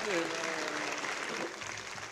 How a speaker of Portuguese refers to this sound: A salva de palmas para essa, essa velha guarda.